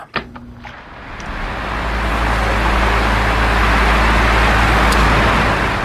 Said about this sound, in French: Bruit d'un ventilateur à présent. Attention, ça brasse de l'air chaud